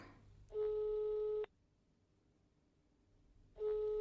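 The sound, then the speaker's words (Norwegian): A telephone ringback tone sounds twice, each long steady burst about a second, separated by a pause, with a low hum underneath and no one answering. “Kom igjen, Kristoffer. Ta telefonen,”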